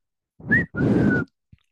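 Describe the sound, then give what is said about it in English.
A person whistles two notes, a short rising one and then a longer held tone, with a faint breathy texture and a brief tap right after. “Were you saying when you whistled right there?”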